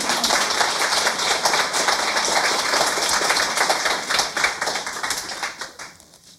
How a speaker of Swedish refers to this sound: Jag tycker det är värt en till applåd faktiskt.